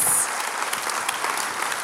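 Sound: audience applause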